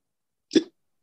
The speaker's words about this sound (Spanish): Ay, me doy hipo, perdón.